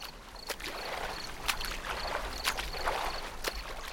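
A swimmer pushes off into the still, shiny water of a lake at night, with rhythmic splashes and strokes breaking the surface roughly every half second over a steady wash of moving water. No one speaks.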